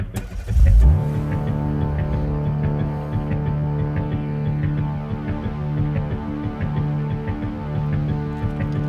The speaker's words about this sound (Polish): ten dźwięk silnika cały czas tam jest. Trzeba przyznać, że bardzo motoryczny.